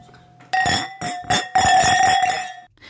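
Glasses clink together in a toast in a communal kitchen, several bright, ringing taps in quick succession, fairly loud, their tones lingering and overlapping before fading out.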